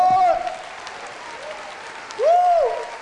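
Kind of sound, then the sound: crowd, audience applauding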